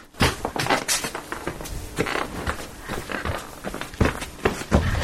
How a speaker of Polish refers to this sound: I jak ja zaczynam chodzić, to podłoga tak mi yy, dźwięczy, tak parkiet chrupie i piszczy.